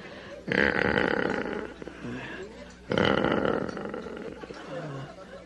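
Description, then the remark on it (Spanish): Cows moo twice, each call a loud, rough, low drone stretching about two seconds, with a short pause between them and a fainter grumbling tail after the second. “Ah, no, esos son vacas.”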